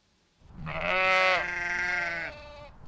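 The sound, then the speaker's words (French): A single long, wavering sheep bleat, fairly loud, lasting nearly two seconds before trailing off. No one speaks. “Trois moutons et leurs parents habitent au bord d'un bois profond.”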